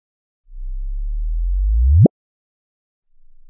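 Gravitational wave data, loaded into audio software and played back as sound waves without further processing: a low, steady tone rises slowly in pitch and loudness, then sweeps sharply upward in a sudden chirp and cuts off abruptly; a faint hum returns afterward.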